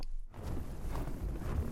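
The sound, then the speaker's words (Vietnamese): Footsteps crunch steadily along Odaesan's Seonji-gil, an ancient thousand-year-old path, walked from a temple's back gate toward Sangwon Temple. Moderately loud, with a continuous gritty texture and no voices. “깨달음 치유의 천년 옛길 오대산 선지길 지금 걷고 있는데요.”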